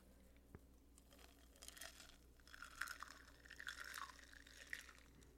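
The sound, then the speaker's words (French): Liquid pours into a glass over small ice cubes with small crackling, clinking sounds, fairly quiet, building through the pour with brief sharp ticks and no talking. “On entend vraiment bien les petits glaçons, fait que je te conseille de le faire, toi aussi.”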